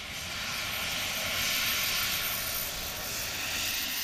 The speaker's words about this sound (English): In the Lake District, a test flight was carried out of a jet suit to help the Great North Ambulance Service. They're hoping it will get paramedics up to those in need on felltops in a fraction of the time.